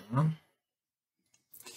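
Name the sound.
computer mouse click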